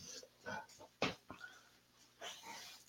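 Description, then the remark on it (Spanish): Pet dogs pant and huff in short, breathy bursts at an uneven rhythm, with one sharper snort-like puff in the middle; no one is talking. “Pero en general, pues son perros y viven conmigo y pues se van a escuchar en el podcast.”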